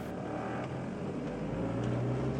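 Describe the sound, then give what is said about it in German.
A car engine hums and revs steadily, its rumbling drone rising slightly toward the end with no voices over it. “hätte ich den Wagen gleich zu Hause lassen können.”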